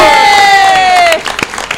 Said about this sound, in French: on fait un tonnerre d'applaudissements pour Manu de Chronopneu qui vient d'arriver dans le studio